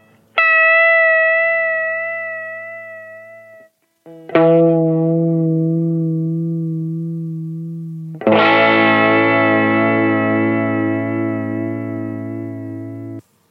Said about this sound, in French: Ici, on va avoir un son un petit peu différent, basé sur un chorus analogique cette fois-ci, basé sur une pédale Boss CE1.